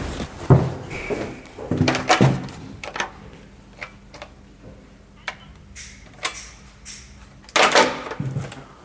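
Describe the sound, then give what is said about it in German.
A refrigerator door is opened and shut, with scattered clicks, soft thumps and rattles of handling, ending in a louder closing thud and clatter. No one speaks. “Ich wollte sowieso gerade zum Kühlschrank gehen, aber gut.”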